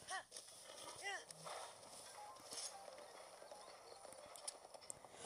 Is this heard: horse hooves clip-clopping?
yes